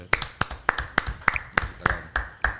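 A person claps their hands about nine times in a steady, fairly quick rhythm, each clap a sharp, bright smack standing out clearly over faint background noise.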